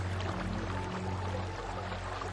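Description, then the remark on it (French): A faint, steady rush of flowing water, like a river heard from a distance, continuous and unbroken, with a low droning hum underneath and no voices. “Puis il entend une lointaine rivière.”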